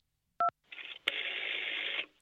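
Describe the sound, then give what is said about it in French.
A single short telephone keypad tone, the two-note beep of a number being pressed to choose an option on an automated poetry phone service, followed by a click and a second or so of steady hissing static. “Choisissez un des trois tiroirs en tapant 1, 2 ou 3”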